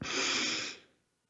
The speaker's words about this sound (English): So let's take a deep breath